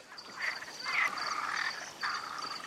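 A chorus of frogs croaks continuously, overlapping calls swelling in bursts over a steady high-pitched trill, moderately loud, with no one speaking.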